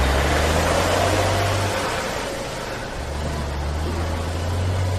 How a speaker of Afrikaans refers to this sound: Toe word hy in 'n vragmotor gelaai en voel hoe hulle begin beweeg.